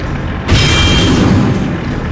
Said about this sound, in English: Then another loud clang as a second shell ricocheted off the back of the tank.